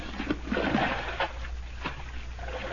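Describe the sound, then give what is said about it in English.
Water splashes and sloshes, with a few sharper slaps standing out from a steady watery churn as a net is dipped and held in the water. No one speaks. “Put me in your net. Hold the net in the water.”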